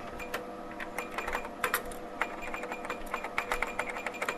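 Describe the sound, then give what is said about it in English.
Rapid keyboard typing from the original version of the typing game Mavis Beacon Teaches Typing fills the whole stretch, a steady clatter of crisp keystrokes in an uneven rhythm, moderately loud, with no voices. “Mavis Beacon teaches typing. So that's the original version of this game we're talking about.”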